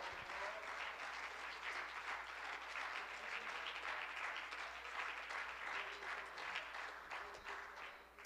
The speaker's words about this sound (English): One more time, would you clap your hands and love the Lord?